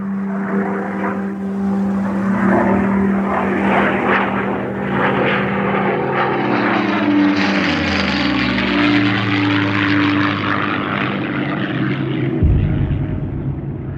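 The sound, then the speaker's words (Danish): A propeller airplane drones loudly overhead, its engine pitch sliding as it passes, with a steady rumble throughout and no voices. “så kom flyvemaskinen.”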